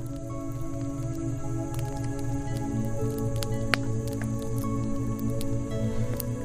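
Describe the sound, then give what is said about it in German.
A crackling fire gives off scattered sharp pops and snaps over a steady, soft bed of sustained music, with no voices present. “Du hörst das Knistern des Feuers und lässt die Musik durch deinen Körper fließen.”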